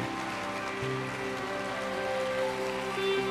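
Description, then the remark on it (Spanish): An audience at a Spanish-language church service applauds a decision in a steady, dense wash of clapping lasting a few seconds. Sustained musical tones, like an organ or keyboard, hold underneath. “Vamos a darles un aplauso ah, por esta decisión.”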